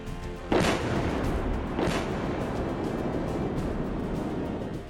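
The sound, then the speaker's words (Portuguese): Two heavy booms of explosions near Kyiv, Ukraine, go off about a second apart, each a broad burst of noise, followed by a sustained rumbling roar that lingers. There is no talking. “Mais explosões foram registradas.”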